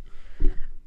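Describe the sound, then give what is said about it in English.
A drink can pops open with one short, sharp crack, followed by a faint fizzing hiss that fades quickly. No voices are heard. “have the sound of me popping open a can mid opening.”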